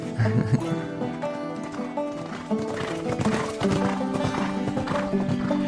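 Horse hooves clop steadily while a horse whinnies and snorts, the busy hoofbeats and neighing filling the short stretch without any talking.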